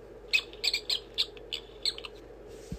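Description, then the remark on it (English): A prairie dog gives a series of sharp, high-pitched chirping calls, about eight quick yips in an uneven rhythm over a low steady hum, with no voices. “Underground, the prairie dog digs rooms and tunnels. Prairie dog.”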